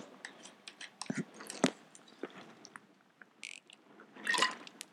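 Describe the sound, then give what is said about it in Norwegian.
Small splashes and gurgles of a little water sloshing around inside a nearly empty bottle, irregular, with a fuller swirl near the end and no talking. “Har dere hørte vann i flaska. Jeg har så lite igjen, sånn at det er tomt.”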